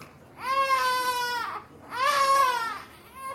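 A fussy infant with gas pains cries in two drawn-out wails, each rising then trailing off with a short breath between, fairly loud with no talking.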